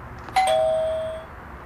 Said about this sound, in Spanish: Tocaremos el timbre para tratar de hablar con él.